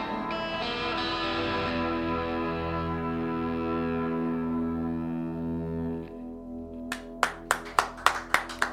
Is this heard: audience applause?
yes